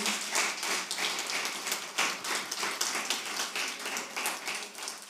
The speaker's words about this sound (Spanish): un aplauso fuerte al Señor.